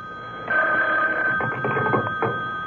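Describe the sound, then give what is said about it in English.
A telephone bell rings with a steady, trilling electronic tone that starts after a brief pause and carries on with clattering pulses, clear, with no one speaking. “Then the phone rang.”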